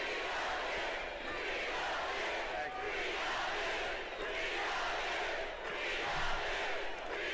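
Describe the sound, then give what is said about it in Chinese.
A large rally crowd in Georgia shouts "We love you!" and cheers together in a sustained, dense roar, swelling in rhythmic waves as voices chant in unison, loud throughout with no single speaker standing out. “民众大喊：“我们爱你！”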